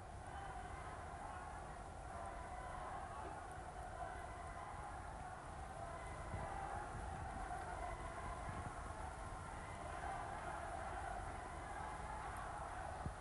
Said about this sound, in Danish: Kan de høre det? Det er araberne op i deres bydel Kasbaen, der råber i natten. Og natten igennem. Det lyder kun svagt på denne afstand, men mikrofonen kan ikke komme nærmere.